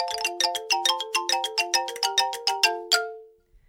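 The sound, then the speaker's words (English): A doorbell plays a quick melodic chime, a rapid run of bright bell-like notes that ends on a longer ringing tone. It is clear, with no voices. “Oh, wait, is that the doorbell again?”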